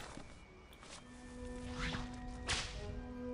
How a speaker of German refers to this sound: Also man kann hier springen, schlagen, Peitsche.